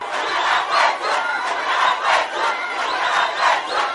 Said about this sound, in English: partners attempted to meet angry community members at the Emma campaign sport field but failed as thousands of community members demanded the release of more than 120 people who had been arrested. They shouted at the leadership demanding the release.